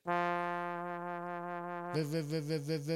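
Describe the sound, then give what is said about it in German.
A keyboard's synthesized brass voice, like its saxophone or trumpet sounds, with the key held down long: a buzzy tone held steadily for about two seconds, then brightening and taking on a clear wavering vibrato until it cuts off. No one talks over it. “Also gerade bei den Saxophonen oder bei den, ähm, bei den äh, Trompeten ist es immer so, wenn man den länger gedrückt hält.”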